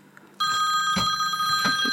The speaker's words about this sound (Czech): Volá mě moje holka.